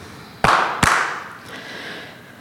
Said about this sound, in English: Let me give it a clap. Yep.